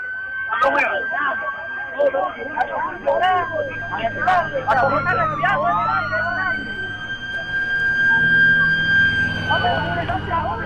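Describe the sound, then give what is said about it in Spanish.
An ambulance siren wails with a steady, high, sustained tone that dips briefly in pitch midway, loud, while people talk over it throughout; the village's only ambulance, carrying the wounded to the medical post of Quillaricocha. “La única ambulancia del pueblo no alcanzaba para llevar a los heridos hasta la posta médica de Quillaricocha.”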